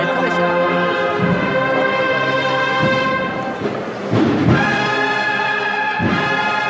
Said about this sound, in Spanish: Marcha con la que este paso va a entrar en la zona vallada campana.